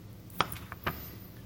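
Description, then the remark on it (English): Two sharp knife cuts trimming one end off a zucchini, crisp clicks against a cutting board about half a second apart, with a fainter tap between them and a low background hum. “And I'm going to trim one of the ends off of that right now.”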